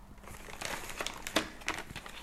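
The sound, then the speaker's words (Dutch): Crisp crinkling of plastic wrapping while ham is rolled for a bread roll sandwich, handled in short irregular bursts with a few sharper crackles, fairly quiet and with no one speaking. “Eh, ik heb broodje en ik draai ham.”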